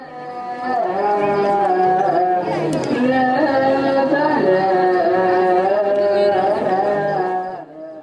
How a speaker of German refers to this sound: Das hier, das klingt eher wie ein Muezzin, ist aber die Stimme einer äthiopisch-orthodoxen Kirche.